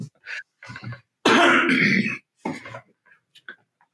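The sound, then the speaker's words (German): A loud, harsh cough from an allergic reaction bursts out, framed by a few smaller throaty hacks and splutters before and after, with no talking. “jetzt, jetzt, muss ich den Huster drin lassen.”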